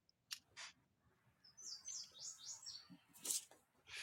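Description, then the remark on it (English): Birds chirp and twitter in quick, high bursts over a soft outdoor hum, with a few sharper calls scattered throughout, with no voices present. “Why I hear birds in the background.”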